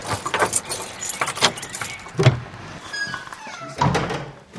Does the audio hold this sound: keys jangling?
yes